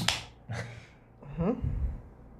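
Sounds of a beer being opened: a sharp crack with a hiss, a second quick pop of release, then a short stretch of faint fizzing and handling noise.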